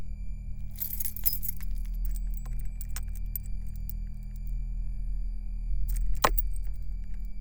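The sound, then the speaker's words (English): Bright metallic jingling of keys, including an engine key, being handed over, comes in two short bursts, one early and one near the end, over a steady low droning hum with no talking. “Here's the key.”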